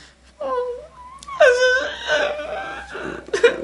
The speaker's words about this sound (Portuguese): Só chorando.